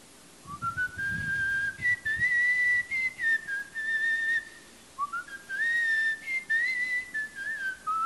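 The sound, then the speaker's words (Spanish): A person whistles a short, lilting melody in two similar phrases, the clear tone gliding up and down with a gentle rhythm, fairly loud with no talking. The whistled bit is the part meant to be played by a clarinet. “yo voy a tocar el piano, vamos a grabar el piano, pero después yo la voy a silbar el pedacito que quiero que toque un clarinete, ¿cierto?”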